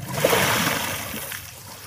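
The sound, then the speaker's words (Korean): Water gushes out of a rock after Moses strikes it twice with his staff, a strong, steady rush with a splashing, hissing texture, loudest at first and slowly easing off over a couple of seconds. No one speaks. “그러자 반석에서 물이 솟아나오기 시작했죠.”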